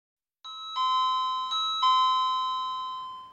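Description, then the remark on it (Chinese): A doorbell chimes, its bright bell tones struck about four times in quick succession and left ringing, the overlapping notes sustaining and slowly fading with no voices present. “按了门铃后，伊恩打开门，探出头来。”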